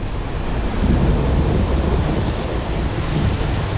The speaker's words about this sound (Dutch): Het werd een soort, een soort herfst met, met temperaturen. 10, 15 graden was het dan. En dan met heel veel regen en heel veel onweer.